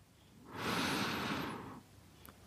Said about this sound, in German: Lass uns nochmal tief atmen. Zusammen, du und ich. Tief ein.